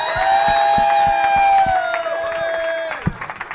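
A crowd bursts into loud, dense applause for a missionary couple called up to the front, while a long, steady high cheer or whistle rings over it, then the clapping thins to a few scattered claps at the end.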